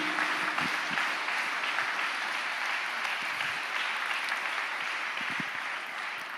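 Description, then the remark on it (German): An audience applauds steadily, a dense wash of many hands clapping at an even level throughout, with no voices standing out above it. “Gebt ihm gerne einen Applaus.”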